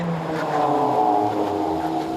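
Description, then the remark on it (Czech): A heavy 20-ton armored vehicle's engine drones loudly, a steady low rumble with a shifting pitch as it drives and brakes in an army demonstration of its braking distance, roughly twice that of a passenger car. No voices. “Jde o to, že 20-tunový obrněnec má zhruba dvojnásobnou brzdnou dráhu než osobní auto a proto je při jejich předjíždění obzvlášť potřeba dávat pozor a hlavně se neřadit do kolony.”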